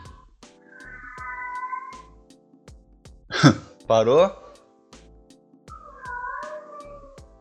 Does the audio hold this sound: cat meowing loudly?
yes